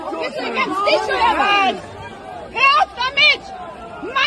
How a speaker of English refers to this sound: Do you hear all the people in the backdrop? While they're beating this guy, do you hear all the people in the backdrop?